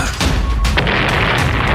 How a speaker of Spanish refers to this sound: Y grandes explosiones.